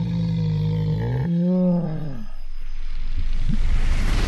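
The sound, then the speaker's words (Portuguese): A person imitates a bear standing up on two legs, with a deep, drawn-out growling huff that trails into a wet, slobbery, breathy exhale, loud, with no speech. “Aquela suspirada assim, meio aquela babada.”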